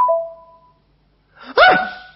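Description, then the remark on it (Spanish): A WhatsApp message notification chime for a message from Chicho de Mendiolaza rings once, a short bright tone that fades within a second, followed after a pause by a sudden loud vocal exclamation. “Me entró un WhatsApp de Chicho de Mendiolaza.”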